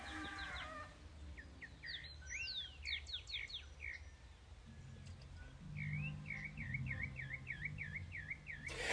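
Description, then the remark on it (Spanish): Small birds sing varied songs, with quick chirps and sweeping whistles early on, then a steady run of repeated, bouncing notes, all over a low, constant background rumble. “El canto de esos pajaritos que varía tanto, me encanta.”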